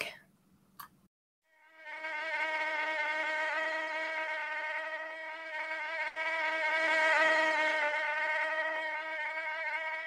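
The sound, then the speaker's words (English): A steady high-pitched mosquito whine starts after a brief click and drones continuously with a slight wavering pitch for about eight seconds, loud and alone with no talking. “And can it, can anyone hear buzzing?”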